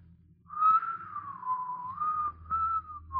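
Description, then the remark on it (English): A man whistles a tune, a single clear tone gliding up and down in a continuous melody, over a faint low rumble with no talking. “I know you're an orphan and you haven't had much bringing up, but you could make a man of yourself if you'd stop whistling and dreaming all the time.”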